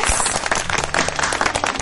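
A crowd applauds to bid farewell to a guest, with dense, continuous clapping, many hands overlapping into a steady, fairly loud wash of sharp claps with no pauses.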